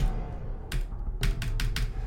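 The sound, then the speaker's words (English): Several sharp computer keyboard key presses, distinct, land in a quick uneven cluster of about five clicks over a low steady background hum, with no voices. “My my keyboard doesn't work at all.”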